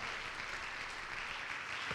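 An audience claps their hands together, a dense, steady wash of overlapping claps that keeps up at an even level throughout, with no voices standing out.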